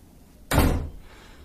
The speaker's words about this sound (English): Slips out the door.